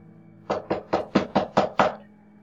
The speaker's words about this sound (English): But suddenly, when said curtain opens again, there is a sound of knocking at the front door.